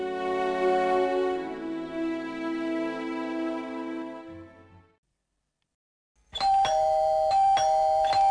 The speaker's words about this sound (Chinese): 冯晶还在王亮、李铁门前按着门铃，门铃一直在响，却没人来开门。